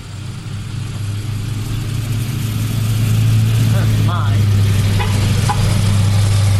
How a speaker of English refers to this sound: Nice big truck going by.